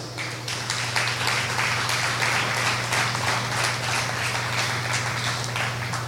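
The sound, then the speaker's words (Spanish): An audience applauds God at the preacher's call, steadily for several seconds, a dense, sustained wash of many hands clapping at once, with a low electrical hum underneath. “¿Cuántos le pueden dar un aplauso a Dios?”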